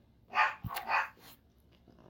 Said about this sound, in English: We'll, uh, we'll be right back after these messages from Cocoa Puffs, the barking dog.